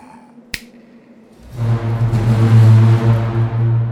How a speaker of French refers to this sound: À son claquement de doigts, les portes de la serre s'ouvrent en grand.